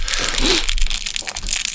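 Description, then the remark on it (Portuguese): Crinkly plastic wrapping being torn and peeled off a deck of playing cards, a steady rustle with sharp crackles that continues for a couple of seconds with no talking. “Eu vou abrir aqui.”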